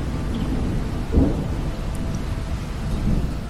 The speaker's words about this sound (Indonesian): Padahal dengan suara hujan memberikan ketenangan.